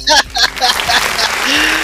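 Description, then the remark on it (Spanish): Audience applause from the studio audience used for Will Sabor's program on Chilevisión, a steady dense wash of clapping lasting about two seconds, with excited voices and cheering rising over it at the start. “¡Oh, aplauso”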